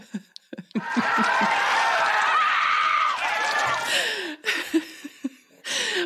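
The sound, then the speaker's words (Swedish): Cross-country skier Rosie Brennan's loud, strained scream holds for about three seconds, raw, then breaks into a few short excited vocal bursts with brief pauses between, as she is hindered by Swedish cross-country chief Lars Öberg during the sprint final in Östersund. “Ja, det är ju såklart eh, två Rosie Brennan, är det hon som skriker alltså?”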